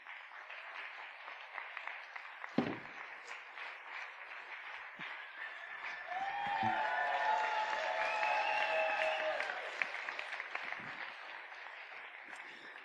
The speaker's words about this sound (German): Ihr könnt mal klatschen, bis ich fertig bin, okay?